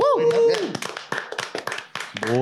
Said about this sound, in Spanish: este, nuestro primer patrocinador. Un aplauso, por favor.